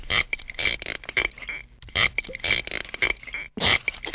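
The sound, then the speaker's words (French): Underwater hydrophone recording of spiny lobster rasps: harsh, creaky buzzing bursts in a few rhythmic clusters, fairly loud, separated by brief pauses, with no talking. “Ah, c'est le son de la langouste”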